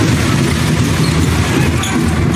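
A large arena crowd roars and cheers in a dense, unbroken wall of noise, staying loud and steady throughout with no single voice standing out.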